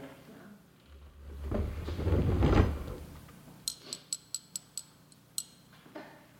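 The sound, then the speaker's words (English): A small metal container on the collar of Jake, a cat, is pried open: a low scraping rustle, then a quick run of seven or eight sharp, bright clicks and snaps, with one last faint tick after a pause. “See that collar around Jake's neck? It has a little container on it. Pry it open”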